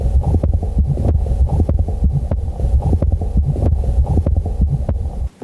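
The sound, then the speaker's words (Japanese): A Still's innocent systolic heart murmur, a normal murmur heard at the lower left sternal border: a fast, steady heartbeat at roughly two beats per second, each beat carrying a low, humming, musical buzz, with no voices. “それからスティル雑音と言われるものはこれ正常な方で聞こえる雑音でこれは胸骨左円下部で聞こえる、まあ、収縮器の屈性雑音というふうに言われています。”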